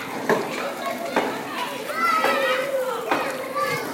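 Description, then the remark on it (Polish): A lively crowd of young children playing outdoors at a kindergarten, heard while walking past, with overlapping high-pitched shouts, squeals and chatter, steady and continuous throughout. “O, ale hałas, przechodzimy właśnie koło przedszkola.”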